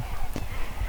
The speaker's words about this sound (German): Schlafplatz für Schneereiher. Man hört es vielleicht hier im Hintergrund, die machen voll den Lärm. Die gehen jetzt gerade alle, die Sonne ist jetzt gerade hinter den Bäumen verschwunden, untergegangen und jetzt gehen die alle schlafen.